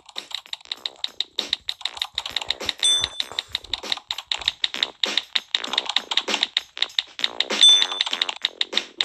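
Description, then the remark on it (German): Rapid, continuous typing on a computer keyboard, with crisp irregular key clicks running throughout and a couple of brief high electronic beeps. “ich schon 3000 Mal getippt.”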